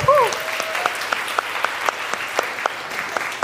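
A short burst of audience applause, a steady patter of many hands clapping with sharp individual claps standing out, opening with a brief high whistle-like tone.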